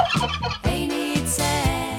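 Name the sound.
turkey gobbling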